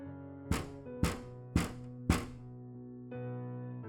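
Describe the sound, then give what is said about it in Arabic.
Four sharp, evenly spaced taps on the office room window of a house, about half a second apart, sounding over a steady low musical drone that shifts slightly after the last tap. “سمعنا صوت نقر على شباك اوضتي وبعدين على شباك اوضه المكتب”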